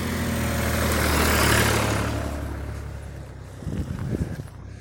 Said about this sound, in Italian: c'è un trattore